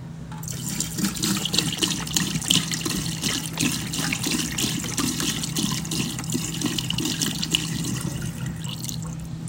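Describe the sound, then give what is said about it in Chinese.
The last of some nearly expired milk pours steadily from a paper milk carton, which pulses in spurts like a beating artery. The flow breaks into uneven glugging pulses and splashes over a low, constant hum, with no one speaking. “在倒出来的过程中，整个纸盒一股一股的，很像动脉在跳动。”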